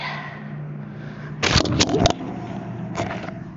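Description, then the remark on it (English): A phone hits the floor with a sharp clatter and a few quick bounces, followed a second later by one more short knock, all over a low steady hum. “y'all heard that I dropped my phone.”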